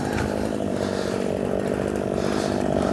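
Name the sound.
chainsaw idling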